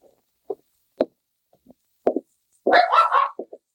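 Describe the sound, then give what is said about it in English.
A friendly pup gives a few short, sharp barks, then a longer, louder run of excited yelping and barking, with scuffling thumps as it jumps up on a man. “Hey, quit jumping on me. Friendly little cuss, aren't you? Down, I say.”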